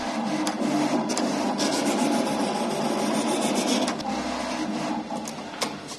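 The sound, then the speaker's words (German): A large cutting plotter, about as long as a door, runs steadily in a clothing workshop, drawing and cutting patterns on a huge cardboard roll, giving off a continuous mechanical whir with scratchy, rasping strokes and short clicks as the head moves back and forth, with no talking. “ein Plotter. Das kann man sich vorstellen wie einen riesigen Drucker.”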